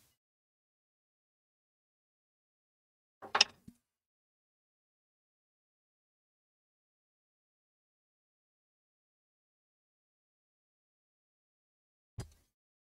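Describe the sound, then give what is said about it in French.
Two sharp metallic bangs on a saucepan, struck far apart with long silence between them; the first is loud with a brief ringing rattle, the second a shorter, duller knock. “Voilà, alors je sais, ça réveille les chats, ça fait mal aux oreilles quand on écoute au casque, mais quand même, qu'est-ce que ça fait du bien, qu'est-ce que c'est beau, qu'est-ce que c'est merveilleux, une casserole.”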